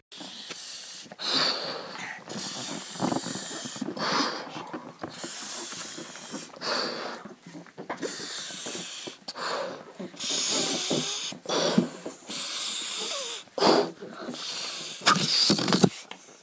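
Several breathy puffs of air blown into a balloon, followed by a long, wheezing, sputtering squeal as the balloon is let go and the air rushes back out, fairly loud with no talking.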